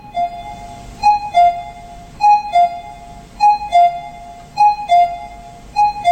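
cuckoo calling

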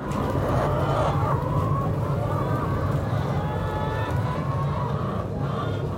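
chickens clucking

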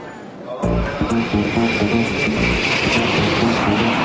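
airplane engine roar

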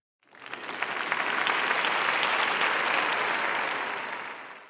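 applause

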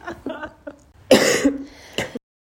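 coughing and throat clearing

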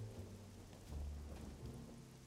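heavy rain downpour

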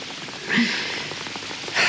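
rain falling

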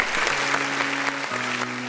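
applause sound effect

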